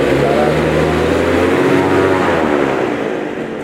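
A loud, steady roar from the engine of an airplane right beside the speakers, a broad rushing drone with a humming tone underneath that eases off slightly toward the end.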